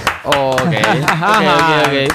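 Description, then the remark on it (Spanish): Sharp claps ring out at a steady rhythm, several per second, partly masked by a loud, sustained voice that rises and falls in pitch over the top. “Aplaudan, eh, no dejen de aplaudir.”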